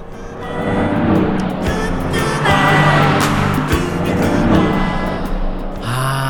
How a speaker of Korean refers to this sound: 자, 옆에 차가 지나갑니다. 음악 소리 들려요. 옆 차에서 어떤 노래를 듣고 있을까요? 들어보세요.